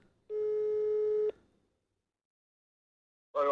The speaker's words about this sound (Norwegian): Nå tar vi han på høyttaler. Siden vi ikke klarte å koble opp anlegget her. Skal vi se. Vi prøver nå. nå. Her ringer det. Han sitter i bil, så det kan bli fryktelig. Han vet ikke at vi ringer.